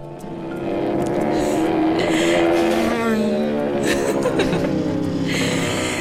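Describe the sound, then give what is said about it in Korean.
A police motorcycle's engine roars loudly, its pitch climbing and shifting as it approaches from far away and then brakes suddenly, holding a steady drone to the end with no talking over it. “제 앞에 급정거한 그 오토바이는 오, 엄마가 울, 울면서 내렸어요.”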